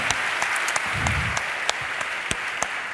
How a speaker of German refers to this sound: Ihr dürft euch wieder hinsetzen. Ne? Es ging jetzt nur mal um die einen Applaus nochmal. Habt ihr euch verdient?